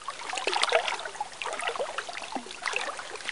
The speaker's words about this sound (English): So, some 73,000 cubic meters of water was streaming into Rome now on a daily basis. Clean and fresh water.